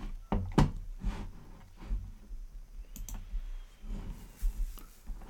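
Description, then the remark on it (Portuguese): A few sharp computer mouse clicks on the Rede Pindorama website, including a click on Terra City, come at irregular intervals, some in quick pairs, with faint handling noise between them. “Na verdade, cliquei em Terra City, mas você quer banco de talentos, né?”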